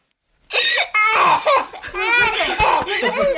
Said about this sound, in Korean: 아이 방문을 열어젖히자 침대에 누운 채 흐느끼고 있는 딸의 모습이 눈에 들어왔다.